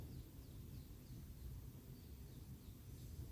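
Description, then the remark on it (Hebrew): Faint chirps from small singing birds repeat every fraction of a second over a low, steady background rumble after the sun has come out, with no talking. “לאפשר לעצמנו לשמוע את הציפורים הקטנות ששרות עכשיו, שמש יצאה.”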